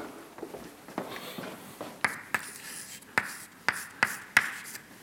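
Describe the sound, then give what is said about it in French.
Writing the equation for the equilibrium of forces on a board with chalk or marker: a run of sharp, irregular taps and short scratchy strokes, with six or seven distinct clicks standing out over a faint background hiss. No one speaks. “Après, pour, euh, j'allais dire pour préparer la suite, je vais écrire l'équilibre des forces.”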